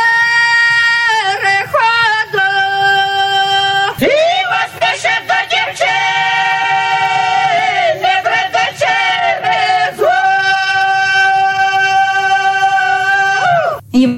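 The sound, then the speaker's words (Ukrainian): Several female voices sing loudly together a Ukrainian spring folk song (vesnianka) from Cherkasy region, then hold long, sustained shouted 'hoo' calls that stretch out for seconds before abruptly cutting off near the end. “Ви чуєте зараз в кінці пісні таке гу, це ознака дуже старої пісні.”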